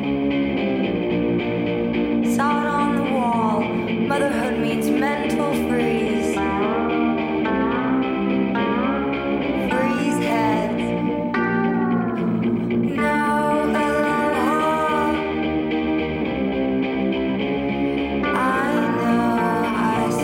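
A haunting rock song plays with a woman singing over distorted, chorus-washed guitars, loud and steady for the whole stretch with a reverberant, dreamy feel and no talking.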